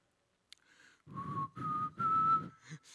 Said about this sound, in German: Ich, irgendjemand erkennt den Song? Ich ich kann nicht so gut pfeifen.